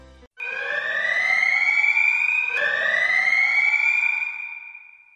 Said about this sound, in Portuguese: Então, tocou a sirene, Estamos, estamos livres, agora estamos livres para falar.